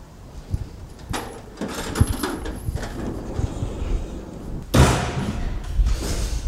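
A heavy door slams shut on a tractor as someone climbs into it, a loud metallic thud partway through, with smaller knocks and clunks before it and birds faintly calling outdoors in the background.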